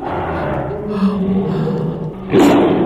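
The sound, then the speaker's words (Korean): A tiger's deep, rumbling growl rolls on for a few seconds, then swells into a louder, harsher roar near the end, close and powerful with no talking over it. “여러분들 처져 계신 분들 이 호랑이 소리 듣고 기 받으세요.”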